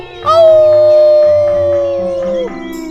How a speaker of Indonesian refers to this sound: Dan benar saja, seekor serigala datang dan berteriak.